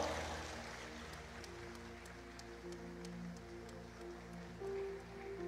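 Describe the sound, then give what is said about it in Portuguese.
A church audience applauds to welcome its pastor, glorifying the Lord, in a dense, continuous patter of clapping that holds steady throughout, with sustained low musical tones droning underneath. No one speaks. “Vamos receber o nosso pastor aplaudindo, glorificando ao Senhor.”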